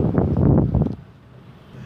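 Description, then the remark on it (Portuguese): Rain falling outdoors on the speaker in São Paulo late at night, heard as a rough, buffeting rush with soft thumping bursts for about a second, then easing to a quieter, steady hiss. “Ih, caralho, tá chovendo em mim.”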